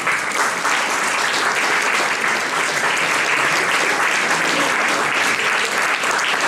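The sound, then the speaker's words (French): A crowd applauding the participants of an evening show, a dense, even patter of many hands clapping at a constant loudness throughout, with no voices standing out. “Et vraiment, on peut applaudir tous les participants qui sont venus prendre un vrai risque ce soir pour vous.”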